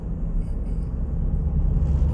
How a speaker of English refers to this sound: There's a truck coming.